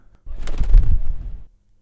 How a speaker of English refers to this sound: And at that, the crow gave another terrible shriek and flew off into the night.